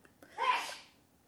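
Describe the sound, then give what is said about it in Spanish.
A single sharp sneeze bursts out, rising quickly and trailing off within about half a second, with no talking around it. “Salud.”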